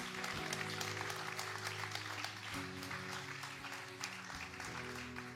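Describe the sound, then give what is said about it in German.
Sustained audience applause for three people standing on a stage, a dense wash of clapping that stays loud and steady for several seconds, with low tonal music or hum underneath. “Und hey, lasst uns den drei doch jetzt mal einen riesen Applaus geben für den Mut, dass sie auf dieser Bühne stehen und uns einfach teilhaben lassen.”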